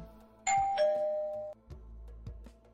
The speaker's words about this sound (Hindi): एक सुबह मेरे घर की घंटी बजी